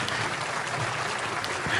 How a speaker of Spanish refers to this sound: Vamos a recibir a nuestro hermano con fuertes aplausos.